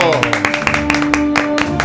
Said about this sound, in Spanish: Un estudiante salvadoreño gana medalla de oro en Olimpiada Matemática en Asia. Wow. Y eso merece un aplauso.